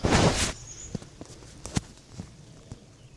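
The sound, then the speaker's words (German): A short rushing burst gives way to two arrows thudding into a rubber 3D animal target: two prominent sharp, dull impacts separated by under a second, among a few fainter knocks. “Normalerweise schießt man nur ein Pfeil aufs Tier, aber hier zu Demozwecken sind zwei bestimmt erlaubt.”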